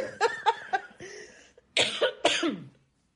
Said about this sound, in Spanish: Ya cuando me da mucha risa y me da tos, digo, hijo de la chica.